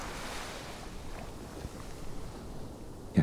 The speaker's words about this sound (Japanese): 優しく寄せては引いていく波静かで心地よい海辺をイメージしてください聞こえてくる波の音に意識を向けましょう